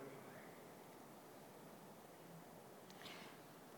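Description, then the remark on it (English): Rain patters steadily on a roof, a soft, continuous hiss with no pauses, heard alone and fairly quiet throughout. “as we hear the rain coming down on the roof”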